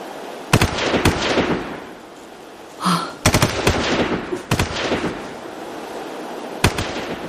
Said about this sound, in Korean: 과거를 떠올리던 그녀는 사과밭에서 들려오는 총소리에 퍼뜩 정신을 차렸다.